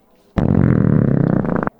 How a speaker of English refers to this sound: Was that a belch?